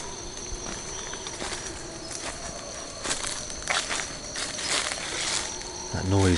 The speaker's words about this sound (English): guess those are um, howler monkeys. There's a couple of different family groups either side of the pond next to our camp. Apparently it's it's only one or two individuals amongst the family groups that make that noise. It's a kind of spooky noise